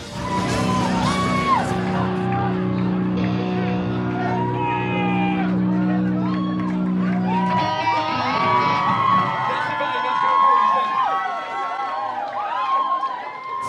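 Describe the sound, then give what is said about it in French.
A dense concert crowd in a hall roars and chants together, singing along to every lyric, loud and continuous, with many overlapping voices, sustained low droning tones in the first half, and scattered shouts and whoops rising over the din. “pendant une heure, la salle est enflammée. La foule connaît chaque parole. Il y a vraiment une énergie folle.”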